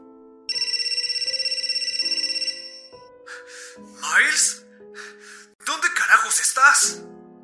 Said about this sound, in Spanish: No había pasado ni un minuto desde que terminó el video, cuando mi teléfono empezó a sonar.